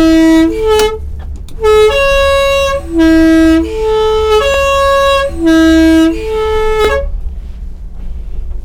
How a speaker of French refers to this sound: ah, c'est un art aussi hein, de klaxonner. did it C'est comme le klaxon, c'est devenu quelque chose, c'est la marque des fabrique. c'est un mythe. Hein. c'est vraiment un mythe. C'est le mythe car postal.